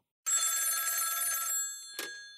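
A telephone bell rings in one bright, rapidly trembling burst lasting over a second as a call is placed, then fades out, followed by a short click like a handset being picked up.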